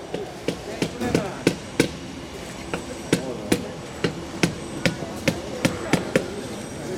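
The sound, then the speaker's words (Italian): Sharp hammer blows tap repeatedly at a brisk, fairly steady pace while Stolpersteine (stumbling stones) memorial stones are set into the ground at a laying ceremony, about sixteen strikes, over a faint murmur of people in the background. “Alla cerimonia della posa delle pietre d'inciampo ho incontrato Roberto Iarac, presidente del Memoriale della Shoah di Milano.”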